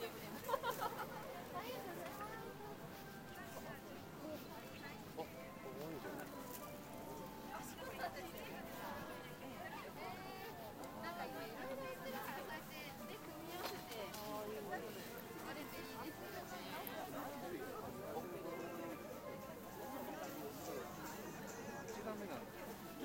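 Steady, dense chatter of many voices overlapping at a busy outdoor morning market on a market day, a lively crowd hubbub that holds at an even level throughout with no single voice standing out.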